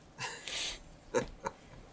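Someone breathes heavily after coughing, a little away from the microphone: a couple of rough, noisy breaths followed by short sharp snorting intakes, faint and airy with no talking.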